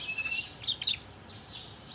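birds chirping

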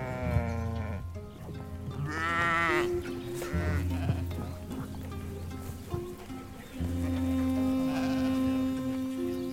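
sheep bleating

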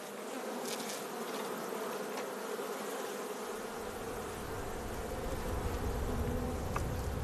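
honeybees buzzing

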